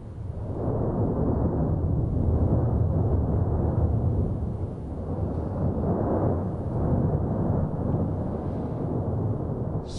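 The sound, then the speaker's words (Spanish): A deep, continuous rumble of the Cabeza de Vaca volcano on La Palma, on the seventeenth day of its eruption, roars steadily for the whole stretch, heavy low-end energy surging and swelling slightly in waves, loud and unbroken with no voices present. “En este decimoséptimo día de erupción, el volcán de Cabeza Vaca suena así.”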